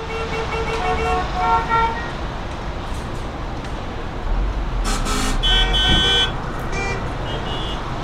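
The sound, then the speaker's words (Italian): Busy city traffic rumbles steadily while several car horns toot and blare at intervals, some short and some held, with a louder burst of honking partway through. “Ma il tema della mobilità urbana non è solo una questione di suoni.”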